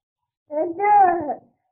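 A toddler's short voiced utterance, about a second long, rising and falling in pitch like babbling or a drawn-out word, close and fairly clear with no other sounds around it.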